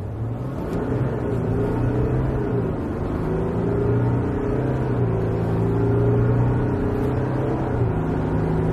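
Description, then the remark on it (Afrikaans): A Volkswagen Amarok 3-litre V6 turbo diesel pickup engine drones loudly and steadily, its low hum rising and dipping slightly in pitch as it revs, with no voices. “Volkswagen het verlede jaar Suid-Afrika se vinnigste en by verre duurste bakkie op die mark losgelaat, die Amarok 3 liter V6 turbo diesel.”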